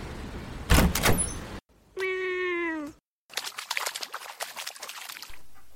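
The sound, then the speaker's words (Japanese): A door creaks open with a drawn-out, slightly falling tonal squeal, framed by a noisy clunk beforehand and a rustling, rattling clatter afterward. Fairly loud, with no voices. “さあ着きました私が扉をお開けしましょう”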